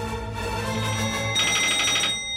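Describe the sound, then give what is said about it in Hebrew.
A telephone rings with a rapid, trilling electronic tone that grows brighter partway through, fairly loud, over a steady low hum, with no one speaking. “ואיך זה נראה כשכבר השלמת עם החיים מחוץ לכנסת, ופתאום מגיע טלפון שאומר לך לנער את החליפה.”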